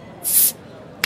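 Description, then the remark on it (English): A bottle opens with a bright, fizzy hiss of escaping gas lasting about a third of a second, followed by a short crisp burst of release, fairly loud. “Pop a bottle.”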